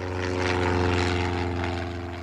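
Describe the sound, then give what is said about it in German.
A small Cessna propeller plane's engine drones steadily, a buzzing, harmonic hum with rushing air noise, loud, holding an even level throughout with no voices; arriving at a hand-built airfield in West New Guinea in September 1975. “Und plötzlich verschwand die Cessna und dann hörte man einen schrecklichen Krach.”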